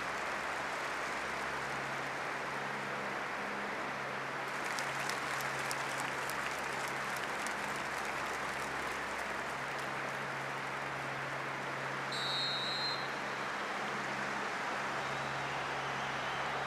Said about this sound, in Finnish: Näin aplodein osoitettiin, osoitettiin kunniaa noille uhreille, jotka Istanbulissa menehtyivät ja loukkaantuivat.